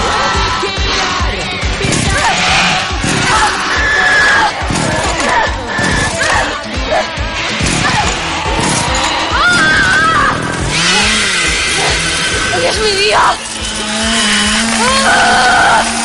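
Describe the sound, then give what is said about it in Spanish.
A chainsaw sputters to life and revs hard as a woman tries to start it while another person sits on her trying to grab it, amid a chaotic din of shouting and screaming, its motor whine rising and falling beneath the loud, crowded commotion. “Se sienta sobre una cómica e intenta arrebatarle la motosierra mientras ella intenta ponerla en marcha.”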